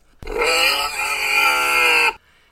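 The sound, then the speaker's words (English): A pig lets out one long, loud, rasping grunt, lasting about two seconds with an abrupt start and stop, with no voices around it. “the pig was very cooperative and happily hopped in the back of the police car where she was conveyed to the station.”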